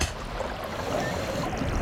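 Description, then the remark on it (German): A muffled underwater whoosh, like diving beneath the surface, with a steady, dense rush of bubbling water and low rumble filling the whole moment, no voices. “Gut, wir tauchen schon mal ab.”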